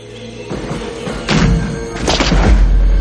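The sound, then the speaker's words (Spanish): Gunshots from soldiers taking up positions in a village ring out in a few loud, sharp bursts, one near the middle and a cluster toward the end, over a low rumbling background. “Los soldados toman posiciones y disparan.”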